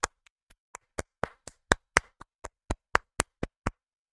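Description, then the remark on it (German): Applause from a single pair of hands: about sixteen sharp, crisp claps in a steady, even rhythm, a little over four per second, with no voices. “Ein Applaus bitte.”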